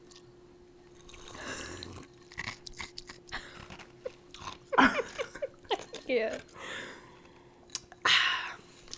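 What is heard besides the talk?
crunching ice cubes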